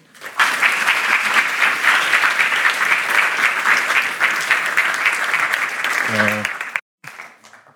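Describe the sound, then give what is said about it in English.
Sustained applause from a sizable audience welcoming Professor Robert Bernasconi at an evening event of a continental philosophy research center in Nijmegen, the Netherlands. The applause is steady and fairly loud for several seconds, then tapers off abruptly near the end with a brief voice at the close. “So please give a warm welcome to Professor Robert Bernasconi.”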